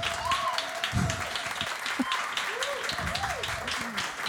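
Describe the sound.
A crowd applauds steadily, dense clapping filling the whole stretch at a fairly loud level, with some voices and cheers mixed in underneath.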